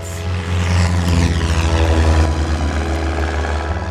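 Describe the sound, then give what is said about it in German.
A small propeller airplane engine revs up loudly, a steady throbbing drone with a strong low hum and rising harmonics, as the pilot starts it, taxis to the runway and throttles up for takeoff. “Dann setzt er sich wieder in seinen Flieger, wirft den Motor an, rollt zur Startbahn und gibt Gas.”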